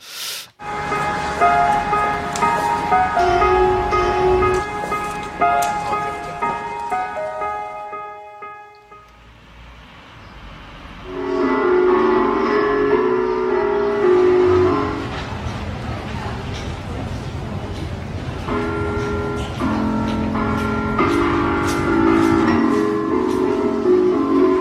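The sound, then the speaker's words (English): Busy Swedish subway station ambience: steady tonal whines and chime-like notes ring over rumbling trains and a murmur of crowd noise, briefly thinning out midway before the train sounds swell again. “So that rather disjointed sound was in fact uh, the sound of uh, it, it, it's an unmentioned um, Swedish subway station where what they did is uh, a group of people called uh, the Fun Theory, who uh, this seems to be sponsored by Volkswagen”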